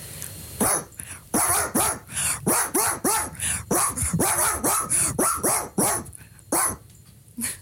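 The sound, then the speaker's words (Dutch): A person imitates a barking dog, letting out a loud run of about a dozen quick woofs in steady rhythm with no other talk. “Blaf ik, heb jij gezegd tegen eh, de redacteur Sportspel en Fun.”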